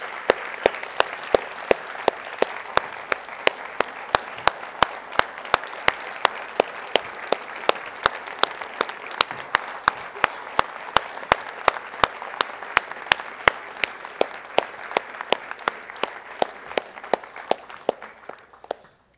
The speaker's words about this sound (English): Will you join me in applauding the commission?